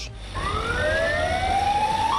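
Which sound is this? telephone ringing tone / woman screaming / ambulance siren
ambulance siren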